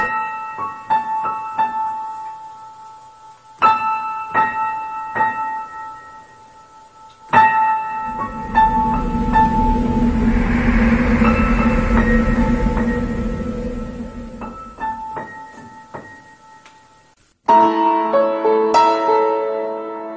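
Instrumental opening of a song by an Argentine singer-songwriter: ringing, bell-like struck notes in short phrases, then a swelling, sustained low chord for several seconds before bright, chiming notes return. No singing is evident.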